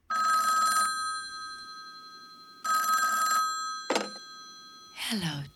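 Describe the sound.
An old-style telephone bell rings loudly in two long bursts with a pause between, followed by a short clunk and a brief voice-like sound at the end.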